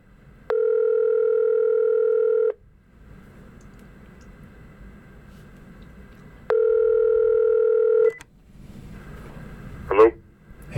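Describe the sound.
A phone line rings twice, each ring a steady two-second electronic tone separated by a few seconds of faint line hiss. A voice briefly answers at the very end.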